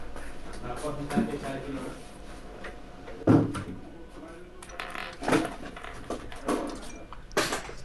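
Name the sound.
door being closed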